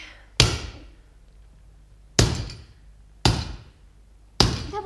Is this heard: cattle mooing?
no